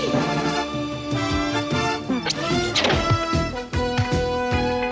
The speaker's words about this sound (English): Tell me if this theme song sounds familiar to you.